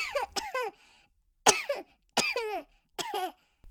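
Several short, deliberate coughs in quick bursts, close and fairly loud, with brief pauses between them; the coughs sound slightly muffled and forced rather than natural.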